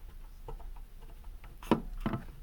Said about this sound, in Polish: Ja może przybliżę rejestrator i tak pokażę zarówno suwaki, jak i pokrętło. Pokrętło jak się kręcą wydały taki dźwięk.